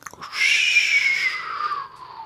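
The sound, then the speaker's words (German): A person imitates wind with a breathy, sustained whooshing hiss that holds a high whistling pitch and slowly fades over about two seconds, preceded by a short breath. “Ich imitiere Wind.”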